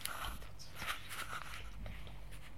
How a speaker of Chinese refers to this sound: 接着，我听到有几个人咚咚咚的跑到旅店的楼上，大概是进了老船长的房间吧。